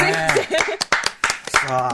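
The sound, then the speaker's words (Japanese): A handful of sharp, irregular hand claps from the two other participants break through a stretch of voices and laughter, the claps brief and fairly loud, mixed in with the ongoing talk. “残りの2人の指揮者も惜しみない拍手を送っておりますよ、これ。”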